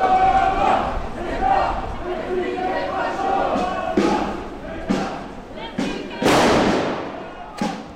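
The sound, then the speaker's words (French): A large crowd of more than 150 antifascist activists chants and shouts together at an outdoor rally in Le Mans, France, voices blending into a loud roar, punctuated by several sharp bangs like firecrackers in the last few seconds. “Voilà ce qu'on pouvait entendre samedi 9 décembre, puisque plus de 150 militants antifascistes se sont retrouvés au Mans”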